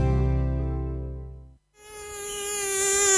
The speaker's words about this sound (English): A mosquito plague is currently raging across the 1FM listening area.